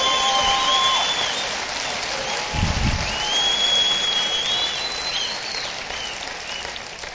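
A live audience at a radio program breaks into steady, dense applause to welcome a new station's listeners in Gainesville, Georgia (88.7). The applause holds at full strength for about seven seconds, with a few thin, high whistles rising above the clapping.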